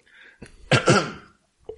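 A single sharp sneeze, with a faint breathy intake before the loud, explosive burst, which trails off into a brief pause and a small sound at the end.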